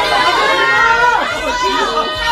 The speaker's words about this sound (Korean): 역시 날 향한 여러분의 환호 오늘도 감사해요. 땡큐.